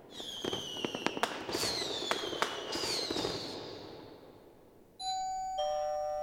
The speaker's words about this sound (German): Ein paar Tage später läutet es an der Türe.